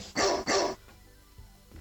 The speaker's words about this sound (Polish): warczący pies